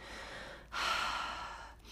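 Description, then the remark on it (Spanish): A slow, deep, calming breath drawn in while meditating, a soft airy rush that swells and then eases off, with no talking around it. “es simplemente cerrar tus ojos, calmarte respirando tranquilamente, haces unas respiraciones así,”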